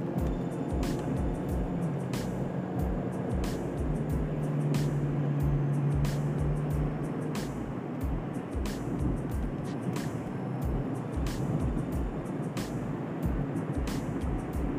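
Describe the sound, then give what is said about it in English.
A steady low rumble of a car's interior while driving through traffic, with continuous road and engine noise, brief tonal hums, and faint clicks recurring throughout; no one speaks. “I was paying attention to traffic. Like I said before, I, I do my podcast in my car.”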